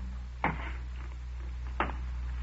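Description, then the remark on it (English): Two slow, scuffing footsteps roughly a second and a half apart, each with a short dragging smear, coming towards a door, fairly quiet over a steady low hum with no voices. “Then I heard steps again. Those odd, dragging steps coming towards my door.”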